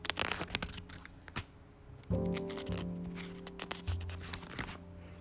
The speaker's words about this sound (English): Well, hopefully you figured it out. It's a book and turning the pages of a book.